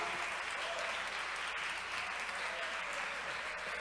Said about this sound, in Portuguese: Só quem crê é que aplaude ao Senhor Jesus.